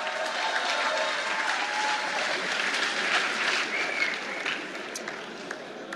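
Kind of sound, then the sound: crowd, audience applause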